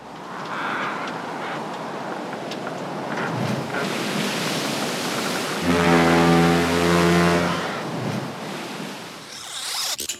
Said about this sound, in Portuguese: O episódio foi sobre pirataria e o som era um navio.